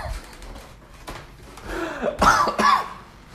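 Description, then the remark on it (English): A person clears their throat and coughs, building to two harsh, forceful bursts in quick succession, with no talking around them. “Would not be enough to without me coughing.”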